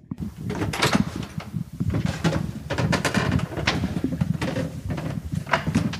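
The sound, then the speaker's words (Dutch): Heavy oak wooden doors being opened at Pieter Tijlershuis, entering from the oval hall, with a series of creaks, knocks and rattling thuds spread across several seconds over a steady low rumble. “Door die mooie eh, eikenhouten deuren.”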